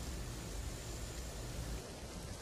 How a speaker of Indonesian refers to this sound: hujan